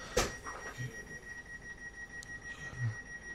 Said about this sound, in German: Jetzt haben wir das Gepiepe die ganze Zeit im Hintergrund, weil der Depp dort sich erstmal in die Tür stellen musste.